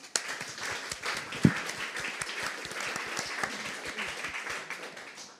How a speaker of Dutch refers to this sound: Daar gaan we toch wel even lekker voor klappen met z'n allen.